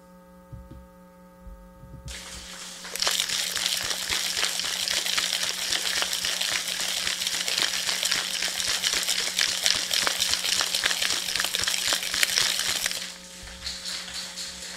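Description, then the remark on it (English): A cocktail shaker holding eggnog cocktails is shaken hard for about ten seconds, ice rattling in a fast, steady clatter, then it stops. A low hum runs underneath and no one speaks. “You know you're getting old when you're out, uh-huh. out, of uh-huh. breath from shaking drinks.”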